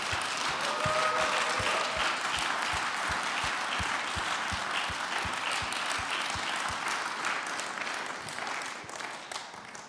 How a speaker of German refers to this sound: Lasst uns doch mal von hier aus einen kräftigen Applaus ins Nebengebäude schicken, okay?